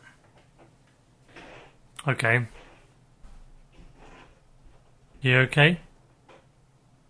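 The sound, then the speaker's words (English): Faint, muffled scratching and light tapping from a cat moving on the roof overhead, coming in short scattered bursts while a voice speaks a couple of brief phrases. “There's a scratching sound coming from above.”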